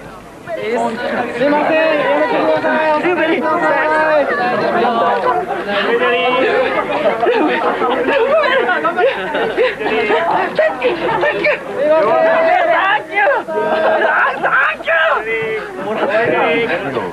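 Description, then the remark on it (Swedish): A dense crowd of Japanese fans in Japan, excited over the visiting Swedish team, chatters and shouts for the whole stretch, many overlapping voices loud with high-pitched squeals rising above the steady babble. “japanska fansen blev helt till sig i trasorna. Vi kanske ska lyssna på hur det lät.”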